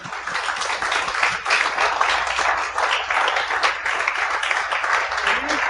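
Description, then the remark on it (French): A crowd applauds two arriving guests steadily, a dense wash of many hands clapping at once with no pauses, holding a fairly even loudness throughout without any voices standing out. “Mesdames et messieurs, bonne main d'applaudissement pour”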